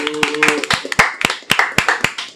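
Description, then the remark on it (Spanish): A small group claps in quick, irregular bursts of applause for a guest, sharp hand slaps for a couple of seconds, with faint tonal hum beneath early on. “Un aplauso para”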